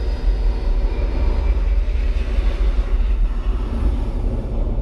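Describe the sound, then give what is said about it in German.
A loud, steady roar of airplane jet engines, deep and rumbling with heavy low-end thunder and a broad hiss above, sustained throughout without pause. “Und die donnernden Düsen eines Flugzeugs spüren.”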